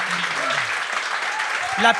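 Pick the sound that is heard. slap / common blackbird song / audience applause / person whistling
audience applause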